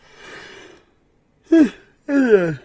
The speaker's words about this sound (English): Why am I yawning already? This sucks.